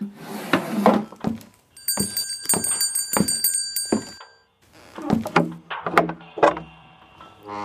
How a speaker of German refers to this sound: Äh, bist du so gut und machst einmal die Tür auf? Ja, klar.